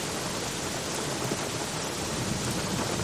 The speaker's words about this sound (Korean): 비가 줄기차게 내리던 2009년 7월, 10년도 더 지난 이야기.